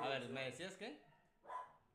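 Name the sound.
dogs barking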